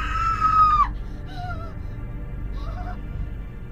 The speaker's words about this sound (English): I don't know how long she stood there, horrified by the sight. She didn't make her presence known until she screamed.